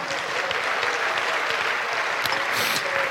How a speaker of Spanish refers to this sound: Dale un aplauso al Señor por esa palabra, hermano.